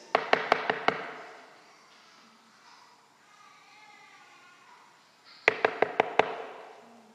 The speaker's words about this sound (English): We're doing all the right things, except Jesus is not in the house. Jesus is on the other side of that door knocking.